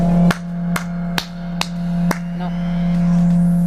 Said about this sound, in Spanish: un poquito de eco para que el aplauso parezca mayor para este oyente que se lo merece? Merece, merece.